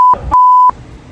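Two loud, steady censor bleeps at one fixed mid-high pitch, a short one then a longer one, cutting in over muffled shouting that carries on briefly after.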